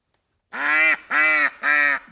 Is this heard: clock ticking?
no